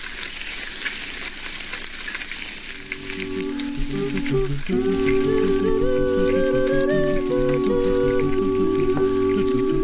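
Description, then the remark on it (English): A theme tune opens over a steady crackling sizzle like food frying; after a few seconds a bright melody and a pulsing bass line join in, with no voices. “Is this when we play the theme song?”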